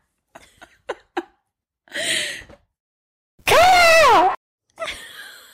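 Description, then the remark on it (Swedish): A person mimics a raven with a loud, harsh, wavering croak, set between a few soft clicks and breathy rasps. The imitation sounds forceful. “det kanske bara bor en korp, du vet, i mitt område i Värmland”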